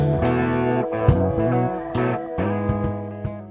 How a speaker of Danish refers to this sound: Her hørte du jinglen til The Free Zone som er en podcast fyldt med konspirationsteorier, som min gæst i dag holder meget af at lytte til.